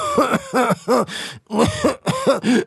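A rapid run of about seven harsh, forced coughs and throat-clearing rasps, loud, each burst short with brief gaps between, and no talking; someone trying out coughing as if catching a cold.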